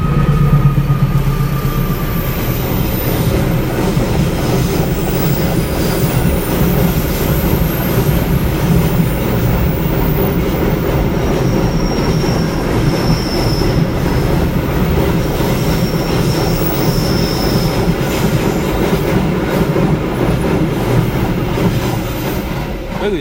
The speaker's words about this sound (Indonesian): kereta api barusan juga sepi banget ya penumpangnya. Soalnya emang kereta barang.